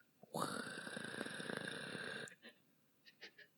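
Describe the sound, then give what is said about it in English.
A single loud, gravelly roar, a human voice imitating a roaring tidal bore wave, holds steady for about two seconds, then breaks off into a few short, breathy puffs and chuckles. “I can't make the noise of a, a boar roar.”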